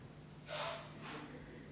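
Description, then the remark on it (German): Two quick, forceful bhastrika bellows breaths, breathing firmly in and out with the belly or with belly and chest, a sharp rushing inhale and exhale, followed by quiet with a faint steady hum in the background. No one speaks. “eine Runde Bastrika, wo ihr fester ein- und ausatmen, entweder nur mit dem Bauch fester atmen oder mit Bauch und Brust.”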